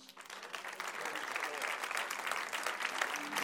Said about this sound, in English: Why don't we put our hands together for the Lord as our pastor comes?